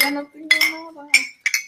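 Glasses of mezcal clink together in a toast: three bright, sharp chinks spaced across a couple of seconds, with low voices murmuring underneath.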